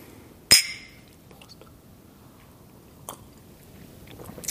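glasses clinking

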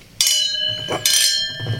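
glasses clinking

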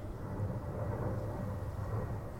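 airplane flying overhead

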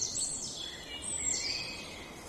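birds chirping

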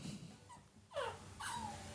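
puppy whimpering

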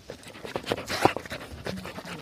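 dog panting

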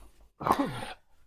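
sneeze

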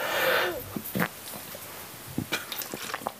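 coughing

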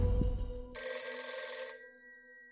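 telephone bell ringing

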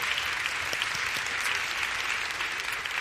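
audience applause

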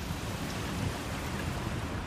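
thunderstorm with pouring rain

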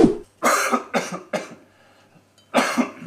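coughing

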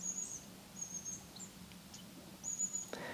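birds singing outdoors

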